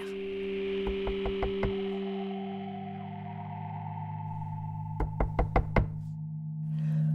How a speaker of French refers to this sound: Le soir même, il frappait à la porte de l'enfer.